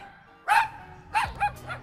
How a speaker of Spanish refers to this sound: El tema de hoy es mascotas. Específicamente, el perro, el mejor amigo del hombre.